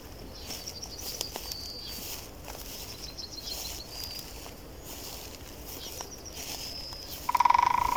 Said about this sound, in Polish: Tak jakbyśmy rzeczywiście chodzili po lesie i słychać i kroki, i ptaki. Posłuchajcie tego przykładu. Ale najlepiej jest nagrać od razu, tak, żeby było słychać i ptaki, i kroki, no i jeszcze często nasz głos.